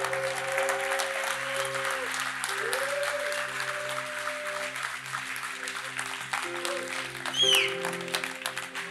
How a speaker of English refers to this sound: If you've received something, I want you, you've got a hand clap of praise for that.